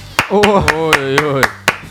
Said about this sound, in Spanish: Esta es la anteúltima que aplaudimos, ¿eh? Perfecto, perfecto.